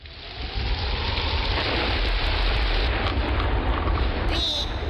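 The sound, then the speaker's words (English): Heavy rain pours down in a steady, dense hiss that swells in quickly and holds loud throughout, with a low rumbling undertone like a driving storm. “But outside, an unexpected storm suddenly appeared, and the mushroom began to sway back and forth.”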